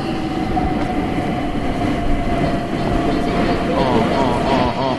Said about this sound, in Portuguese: Vamos acelerar aqui, pegar o Overground, né? Que é uma linha de trem superfície, né? Pela superfície, que a gente vai atravessar até o sul de Londres, que é lá do outro lado da cidade.